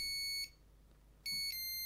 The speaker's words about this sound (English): Is it a mobile phone? Yes.